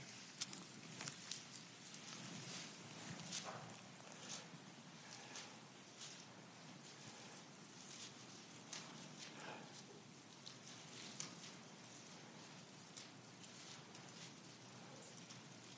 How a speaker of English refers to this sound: Is everybody there? I still hear a few pages rustling.